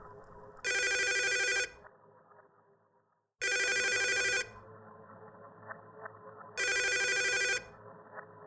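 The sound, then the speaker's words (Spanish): A telephone rings three times in evenly spaced, bright electronic bursts, each about a second long, with quiet pauses and faint background noise between them and no answer. “Le marqué en varias ocasiones a don José. Quería preguntarle, quería averiguar algo. Pero nunca me contestó.”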